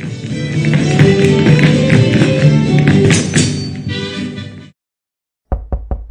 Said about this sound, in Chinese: 过了一会儿，管家敲门进来，想请老人家上床休息